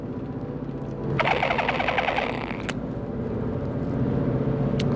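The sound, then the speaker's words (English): A gurgling, bubbly glug from a water bottle with no straw inside, tipped up for a swig, lasts about a second and a half, set against a steady low rumble of a moving car. “I suppose this water bottle's making that sound because it doesn't have the straw inside, so I gotta lift it up and swig.”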